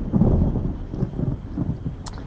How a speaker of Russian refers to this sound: тут гром мне подсказывает, что все, все хорошо.